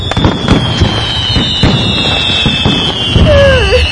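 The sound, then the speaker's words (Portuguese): Fireworks set off out of season in a residential condominium go off in a loud, rapid barrage of bangs and crackles, with a high whistling tone running throughout and a sliding, warbling whistle near the end. “Você, tipo, não rola você ligar um somzão alto e, tipo, comemorar ano novo fora de época, tá ligado?”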